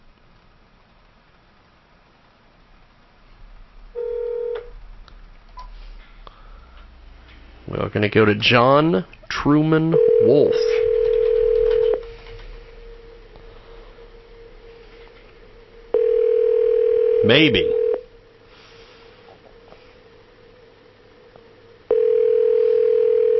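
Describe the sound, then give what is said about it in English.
A telephone call to a guest rings out: a steady, mid-pitched ringback tone repeats several times with long silent gaps between rings, while a man briefly talks over the line. “Okay, well, let's do this. Let's try to call him one more”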